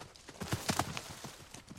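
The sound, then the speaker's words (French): Horse hooves clip-clop in a steady, even rhythm, a series of sharp knocking steps, fairly quiet and heard on their own with no voices. “Le chasseur fait ce que son compagnon lui dit et tous deux se mettent en route.”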